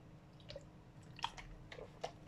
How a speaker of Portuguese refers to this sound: Olha, agora, olha, vou aqui, vou tomar aqui um bocadinho da minha água, esperai um pouco.